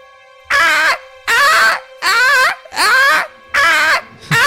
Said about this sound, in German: In dem kompletten Gebäude geht ein Alarm los. Er klingt wie das Schreien einer sehr, sehr ambitionierten, leidenden Frau.